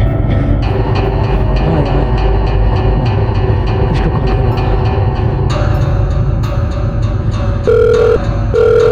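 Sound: phone ringing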